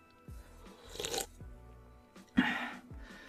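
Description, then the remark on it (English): A quiet sip of a drink: two short, breathy slurping bursts with soft mouth and swallowing sounds between them, no talking. “pardon me, we're going to take a little sip here.”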